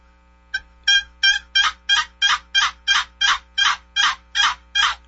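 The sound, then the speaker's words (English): A turkey yelp sequence played on a box call: about a dozen raspy, evenly spaced notes in a steady rhythm, loud and rising slightly in volume, with no talking. “All right, I'll yelp on a box call.”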